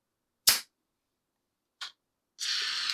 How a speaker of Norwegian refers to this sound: Ja, når du snur en flaske med bobler på huet og rister den, og så åpner korken etterpå, så har den tendens til å få sånn fontene, da.